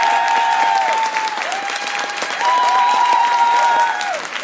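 A live audience applauds loudly and steadily for several seconds for an audience member's question, the dense clapping holding at an even level while a tone sits underneath, dipping at points.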